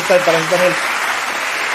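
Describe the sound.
A short burst of canned applause, a dense, steady wash of clapping that holds at an even level throughout, with a brief voiced call heard over the first half.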